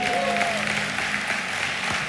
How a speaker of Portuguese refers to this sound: E a propósito, eu queria que a gente aplaudisse os professores do CTM, o nosso centro de treinamento ministerial, sabe por quê?